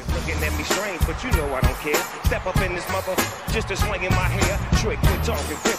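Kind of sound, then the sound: sound effect, hip-hop song playing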